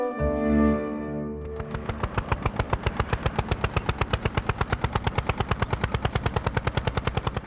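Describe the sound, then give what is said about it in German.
A tractor engine turns over with a brief droning hum, then settles into a loud, steady chugging of rapid, evenly spaced putts, with no voices. “Mit dem Trecker.”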